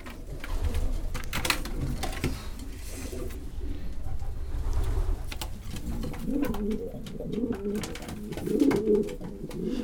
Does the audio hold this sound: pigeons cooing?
yes